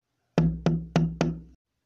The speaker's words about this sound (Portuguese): Correram até lá. e bateram à porta.